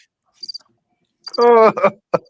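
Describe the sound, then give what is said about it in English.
Crickets chirping as a sound effect: a few short, high, thin chirps in quick pairs, then a louder buzzing tonal burst and one last brief chirp, isolated. “gotta just crickets.”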